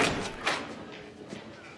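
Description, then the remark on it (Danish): A door opens with a couple of sharp wooden thumps and a rattle, followed by a softer knock, against a faint background with no clear speech; in the show, the character Spencer opens the door to Sasha in Alexandria. “Og manden, der åbner døren og, inviterer og siger goddag og inviterer hende indenfor, det er Spencer.”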